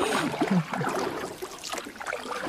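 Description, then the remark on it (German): A canoe paddle dips and pulls through water on a canoe tour, with soft splashes and gurgling drips, set against a steady outdoor wash of flowing water. “Und wenn ich jetzt so höre, wie das Paddel ins Wasser eintaucht, dann finde ich, auch das hat was sehr Genießerisches, was sehr Beruhigendes.”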